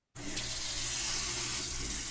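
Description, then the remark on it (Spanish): Water from a shower pours in a steady hiss in the morning, starting abruptly and running on without a break. It is fairly loud and bright, with no voices. “Por la mañana tuve que obligarme a salir de las sábanas y me di una ducha.”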